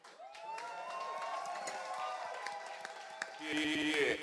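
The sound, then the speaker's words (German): A crowd applauds and cheers, a steady wash of clapping with voices calling out over it, swelling louder toward the end as a tonal, music-like sound joins in. “Das ist nochmal, wirklich nochmal bitte einen Applaus vom Herzen.”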